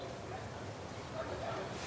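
A dense chorus of sled dogs barking and whining together, a steady, noisy din with thin high whines rising briefly near the end.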